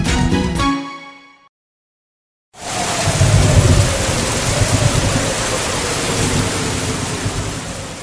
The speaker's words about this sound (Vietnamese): Một ngày giữa tháng 6, Hà Nội đón cơn mưa vàng sau gần nửa tháng oi nóng. Trận mưa rông đến vào buổi chiều tan tầm trong sự mong chờ được gột rửa những bụi bặm, những bỏng rát trên đường bê tông mà người ta đo được nhiệt độ lên đến gần 50 độ C.